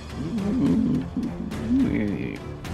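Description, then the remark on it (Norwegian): Someone imitates a monster's roar with their voice, a long growling bellow that rises and falls in pitch and holds for nearly three seconds. “Den der den, den, du greier å brøle så hardt at uh, veggen av slim uh, rykker tilbake.”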